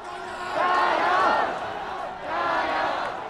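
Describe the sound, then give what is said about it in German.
A crowd of protesters in Hong Kong shouts the rhythmic battle cry "Ga Yao" ("add oil") among high-rise street canyons on a hot, humid summer day, in two loud, sustained surges, many voices rising together, dipping briefly, then swelling again. “Mit diesem Schlachtruf feuern sich die Demonstrierenden in den Häuserschluchten gegenseitig an.”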